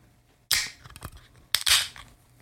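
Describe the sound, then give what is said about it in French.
A beer can being cracked open: a sharp metallic snap followed by a bright, fizzing hiss, repeated twice about a second apart, with no voices. “C'est une canette, bien évidemment.”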